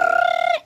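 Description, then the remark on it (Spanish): A telephone's short electronic tone holds one steady pitch with bright overtones for about half a second, then cuts off abruptly, like a notification chirp. No voices are heard. “Ah, no, ese es el teléfono.”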